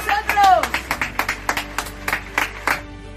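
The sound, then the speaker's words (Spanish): Steady, rhythmic applause with sharp claps landing roughly three times a second, fairly loud, plus a brief rising and falling tonal cry near the start. “Este aplauso es para”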